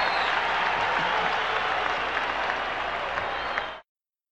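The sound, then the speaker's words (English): A large baseball stadium crowd in Baltimore cheers and applauds as Bo Jackson runs up the outfield wall and it is shown on the big screen, a dense, steady roar of clapping and voices, loud and sustained for almost four seconds before cutting off abruptly. “Listen to the crowd.”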